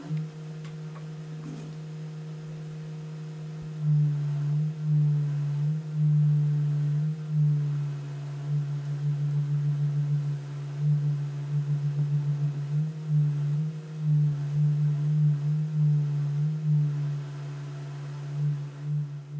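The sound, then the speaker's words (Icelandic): Steady, sustained tones at a concert from pipes and long tubes sounding as air is blown through them, a low droning pitch with faint higher overtones, holding and swelling gently in volume for the whole stretch with no voices. “Fókustónleikana var eins og yfirskrift þeirra sæði pípur eða ílaungrör sem myndar hljóð þegar lofti er hleyft í gegnum þau og þarna voru allskynns pípur.”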